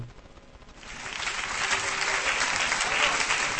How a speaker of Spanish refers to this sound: Gracias, no merezco los aplausos.